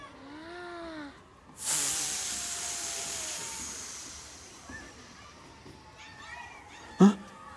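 A cat gives a short meow, then lets out a long, loud hiss that slowly fades. A few faint meows follow, and a sharp thump closes it.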